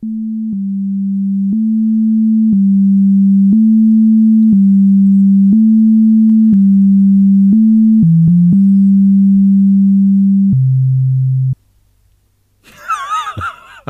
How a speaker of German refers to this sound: Ach du Herrje. Das ist ein Sinuston, okay.